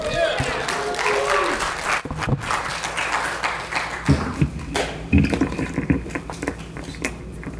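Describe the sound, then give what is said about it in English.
A crowd at the Scarathon film screening bursts into applause and cheering for the film King Kong Escapes, a dense wash of clapping with whoops rising over it, loud before gradually thinning out into scattered claps. “Let's hear it for King Kong Escapes.”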